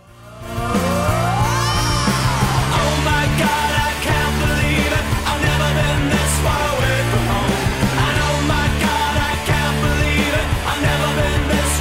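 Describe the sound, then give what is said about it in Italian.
A busy jingle music bed, the classic base for the anecdote segment "I can't believe this is happening", swells in quickly with an upward-sweeping sound at the start, then carries on loud and dense with layered, pulsing chords and no voices. “sempre sentite la base che cresce l'intensità è la base classica delle, degli aneddoti, è la siga di I can't believe this is happening, non posso credere che stia succedendo a noi, è la siga dell'aneddoto più spazzoso fa più o meno così.”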